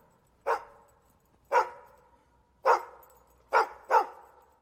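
A dog barks five times in a loose, uneven rhythm, the last two close together. Each bark is sharp and fairly loud with a short tail, heard alone with no voices.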